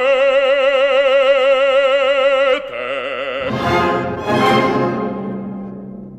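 An operatic bass voice holds a forceful, angry-sounding sung line with heavy vibrato, then a loud orchestra crashes in with dramatic swelling chords.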